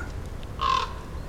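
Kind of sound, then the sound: bird, common raven calling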